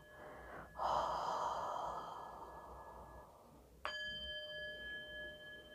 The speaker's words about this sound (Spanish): Sigue respirando, inhalando profundo y exhalando. Continúa tu ritmo.